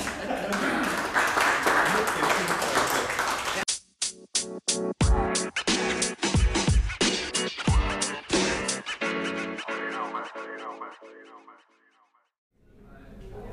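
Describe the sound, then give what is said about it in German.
A few seconds of dense, steady audience applause, which cuts off abruptly into a run of sharp, bouncy percussive tones and twangy sounds before fading briefly to silence. “Applaus!”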